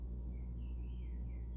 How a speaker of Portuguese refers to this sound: Agora, por exemplo, eu estou com o olho fechado, eu estou escutando um pássaro cantar aqui no meu quintal. Tem muitos pássaros aqui.